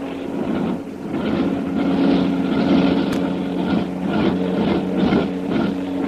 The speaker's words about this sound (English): Karnak Plane. It's leaning back to the lake again. Well, well, there's something wrong. Boy, oh boy, I'll say there is. Listen to those motors.